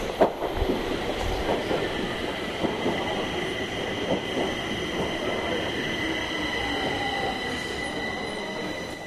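A metro train rumbles through Kungsträdgården underground station in Stockholm, Sweden, steady, with high-pitched wheel squeal ringing over the low roar and faint voices murmuring in the background.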